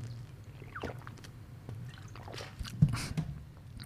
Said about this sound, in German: Aber ich bin sehr dankbar für das Wasser, das ich gerade trinken darf.